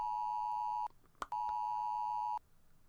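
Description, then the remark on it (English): A loud, steady electronic Amber Alert emergency tone from a phone blares for about a second, breaks off with a brief click, then sounds again for another second. No one speaks. “Uh, okay, so that was an Amber Alert looking for wins.”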